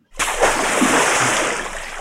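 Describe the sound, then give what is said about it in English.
A sudden, loud splash as a man jumps off a pontoon into water, followed by a couple of seconds of rushing, churning spray that slowly eases off. No voices accompany it. “Uh, as soon as he sees you, he basically jumps off of the pontoon into the water.”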